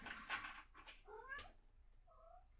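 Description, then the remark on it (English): The cat Hermes meows a few times in quick succession, drawn-out rising and falling cries with a fainter final mew, fairly clear with no one talking. “that right there was my cat Hermes making a guest appearance, which is fitting, I suppose.”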